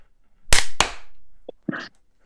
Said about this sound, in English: Oh, you want to clap a second time? Okay. Yeah. So it'll be sure. three, two, one, clap.